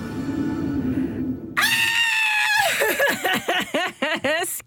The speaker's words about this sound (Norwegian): skrik!